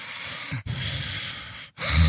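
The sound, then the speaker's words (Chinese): A voice imitates the heavy, snore-like breathing of a person drifting off to sleep, half-asleep but not yet fully asleep: long, loud, airy rasps, two full breaths and the start of a third, separated by brief pauses, with no talking. “这这时候也在打呼噜，就呼吸声。”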